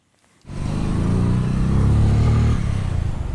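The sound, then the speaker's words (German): A motorcycle engine starts up abruptly after a brief near-silence, then holds a steady, loud, low-pitched rumble, easing slightly toward the end. It is Jackson Adubangu arriving home on his new motorcycle at a new resettlement in western Uganda, near Lake Albert. “Jackson Adubangu kommt auf seinem neuen Motorrad nach Hause.”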